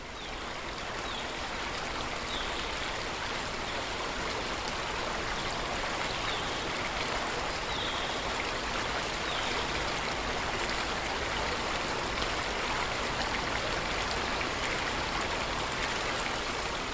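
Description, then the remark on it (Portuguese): Small waves lap and splash steadily on water as the wind, now blowing a little stronger, blows across it, a continuous, fairly loud wash of watery noise with no voices and no pauses. “O vento agora sopra um pouco mais forte, produzindo pequenas ondas.”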